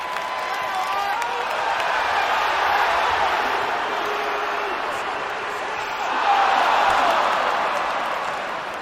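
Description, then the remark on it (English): Dense crowd ambience: a steady wash of overlapping voices and murmur, fairly loud and continuous, swelling slightly around the middle and again near the end, with no single voice standing out. “This makes them good for recording things like crowds,”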